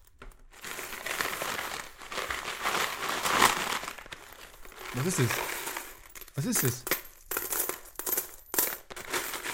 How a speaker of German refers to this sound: deswegen habe ich so einen Briefumschlag, wo ich alles Kleingeld reinmache. Ist wahnsinnig überfüllt schon.